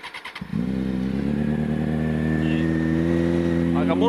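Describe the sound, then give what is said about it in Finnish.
A stunt motorcycle engine cranks briefly as it is started, then fires up into a loud, steady idle with a rising rev that holds strong and rough throughout. “Stunttipyörä, niin tämä on pari vuotta sulla ollut. Joo, pari vuotta tällä on ajellut aina välillä. Pannaanpas käyntiin.”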